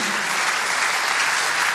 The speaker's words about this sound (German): Ja, wo endet das? fragt hier Wolfgang Schäuble. Er hat ziemlich viel Applaus, wir haben es auch gerade schon gehört, bekommen.